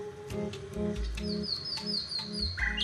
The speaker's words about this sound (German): Die Nachtigallgesänge haben ihnen Bürgerforscher aus ganz Deutschland geschickt. Über 5000 sind schon eingetroffen. Die Forscher erstellen daraus eine Karte mit Nachtigallrevieren. So wollen sie deren Gesang erforschen.